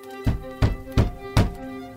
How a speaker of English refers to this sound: Suddenly, there was a loud knock at the door.